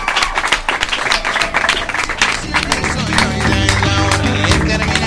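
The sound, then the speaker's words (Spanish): A live audience applauds, another round of applause dedicated to itself: dense, continuous clapping that stays loud throughout, with steady sustained tones swelling beneath the clapping about halfway through. “Que se dedique otro aplauso más a sí venga, Bien, bien.”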